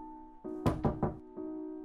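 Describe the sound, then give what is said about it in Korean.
Three quick, solid knocks on a wooden bathroom door at night, checking whether someone is inside, distinct, set against a steady low hum in the background. “누가 안에 있나 싶어 노크를 하자 화장실 안에서도 노크로 대답했다.”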